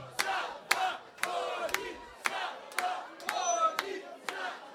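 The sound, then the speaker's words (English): A large crowd chants a name loudly in unison, voices rising in a steady, repeated rhythm with sharp accented beats about twice a second, energetic. “So I want you guys to chant this one more time.”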